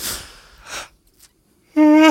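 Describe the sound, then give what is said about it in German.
A man yawns: a couple of breathy, airy inhales, a short pause, then a loud drawn-out voiced groan at the end. “Da gähnt er, da gähnt er und ich sehe seine Kronen.”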